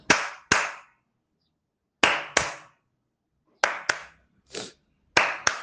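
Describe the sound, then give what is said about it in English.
Sharp hand claps come in pairs, made to trigger a clap-activated phone app: two quick claps, a pause, then another pair, repeated four times, with one softer extra clap mixed in. The claps are loud and crisp, with no talking; the app does not respond. “apparently it doesn't sound i don't know why it's kind of weird but uh, it sometimes function I think it's the variety of your claps that you have to make.”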